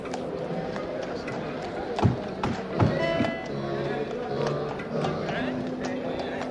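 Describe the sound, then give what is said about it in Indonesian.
Horse hooves clip-clop in a short, uneven run of sharp knocks, mostly in the middle of the stretch, as the caliph Umar bin Khattab rides off on his horse, over a steady background murmur with indistinct voices. “Kemudian, sang khalifah menaiki kudanya, lalu pergi.”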